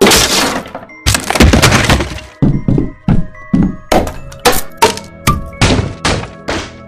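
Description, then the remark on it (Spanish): Loud blows from kicks and iron bars batter a window as people try to break it, about a dozen heavy thuds and metallic clangs with ringing tails, starting irregular and settling into a steady pounding rhythm with no one speaking. “Trataron de romper la patadas y con fierros.”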